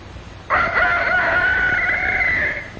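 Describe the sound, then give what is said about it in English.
A rooster crows once, a long, loud, sustained cock-a-doodle-doo lasting about two seconds, over a low rumbling farmyard background with faint clucking. “Very early in the morning, the rooster sends out his call, and the chickens begin to wake.”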